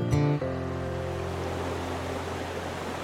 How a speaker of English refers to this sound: So it's a, a beautiful spot both to look at aesthetically, the sound of the water, but also the, this this coming together of the two rivers it's an accessible but also very beautiful spot.